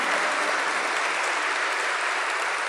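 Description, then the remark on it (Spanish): A crowd applauds steadily, giving applause to the Lord, a dense, even wash of many hands clapping at constant loudness throughout, with no voices standing out. “Yo ser ustedes le daría un aplauso al Señor por esta promesa.”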